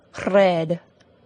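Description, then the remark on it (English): A single short rolled R made by a voice demonstrating a trilled R, a buzzing trill held for about half a second, clear against a quiet background. “It means we do not tap the R sound like this, or trill or roll our R sound like this,”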